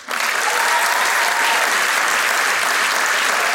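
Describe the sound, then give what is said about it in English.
A burst of audience applause for a guest, steady and full throughout, many hands clapping together in a dense, sustained wash from a live crowd. “And actually, before we do that, let's just hold for applause for our, our fantastic guest, please.”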